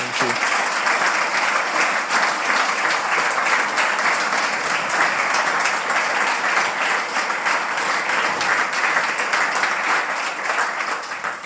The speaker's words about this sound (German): Großen Applaus bitte. Applaus